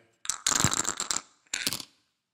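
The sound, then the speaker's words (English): Dice rattle sharply inside a dice cup in a dense, clattering burst, then pause briefly before a second shorter shake; fairly loud, with no voices. “Okay, let's uh, hit the dice cup again.”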